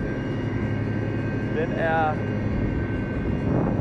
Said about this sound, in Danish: Men den havetraktor, det var bare min nye ven. Ja, jeg ved ikke, om man kan høre mig, men lige nu er jeg på en havetraktor og slår græsplænen